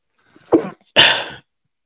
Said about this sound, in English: I tried to mute it there, so you didn't have to hear my sneeze, but I didn't hit the button.